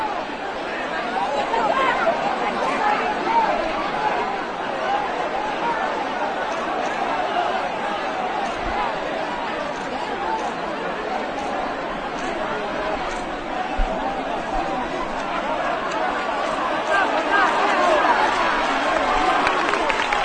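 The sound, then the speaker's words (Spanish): A dense, steady murmur of many voices fills the space, a large crowd of people leaving a temple chattering continuously with no single speaker standing out, the babble holding at an even level throughout. “Se escucha gentío.”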